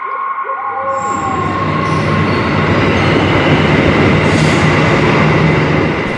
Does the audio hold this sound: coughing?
no